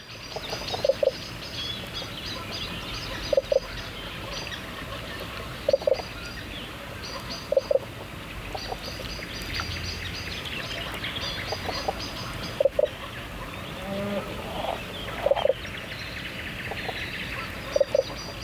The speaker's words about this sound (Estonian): ma mängin siis kompensatsiooniks ette ühe helisalvestuse ühest varasemast maikuust Karulast, kus oli tõesti soe õhtu ja soe öö ja kuulete siis mudakonnade koputavat laulu, mida, mida isased mudakonnad siis veekogu tiikide põhjas teevad.